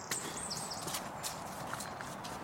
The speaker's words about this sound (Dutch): De dag daarna was iets anders, dus ik heb nu code kledder afgeroepen. En als het goed is, hoor je mij een beetje door de kledder heen klunen nu.